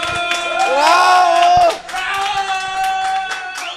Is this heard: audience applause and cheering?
yes